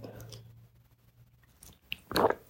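A quiet slurp of hot tea, soft mouth sounds and a faint hum at first, then a brief louder sip and swallow near the end.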